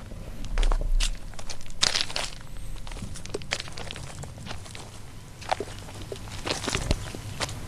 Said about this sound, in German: Das Geräusch, was dann entsteht, wenn man über die, die Steine geht, soll auch so ein bisschen an zerbrochene Scherben äh, zum Beispiel erinnern, eben an die sogenannte Reiskristallnacht von november Novemberpogromnacht.